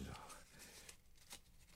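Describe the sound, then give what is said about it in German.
A small scrap of paper, torn from a larger piece, crinkles as it is removed from a dead man's right hand, a handful of short, dry crackles spaced out over a couple of seconds, soft and quiet, with no one speaking. “Ah, das hätten wir. Ein Stück Papier. Um nicht zu sagen, ein Schnipsel.”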